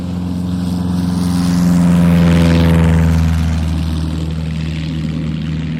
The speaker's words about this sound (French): La première chose dont je me souviens, c'est le vrombissement de l'avion. Il plane lentement au-dessus de nous, comme un vautour qui traquerait sa proie, comme un présage funeste.